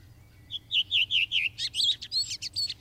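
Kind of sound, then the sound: bird, redwing song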